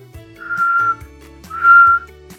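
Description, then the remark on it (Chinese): The cartoon character Archie, wearing a pirate hat, practises whistling: two sustained mid-pitched notes, each about half a second long, with a brief pause between them; the second note is louder. A soft, low hum of music plays underneath. “阿奇戴着海盗帽，还在练习吹口哨呢。”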